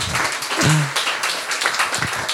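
An audience claps steadily, a dense crackling patter of many hands holding at a fairly even level for a couple of seconds, with a brief low hum or voice sounding briefly partway through.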